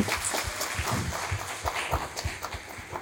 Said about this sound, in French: D'ailleurs, je propose qu'on applaudisse les 12 licornes de cette année. Voilà, ils savent pas, mais on les applaudit parce que...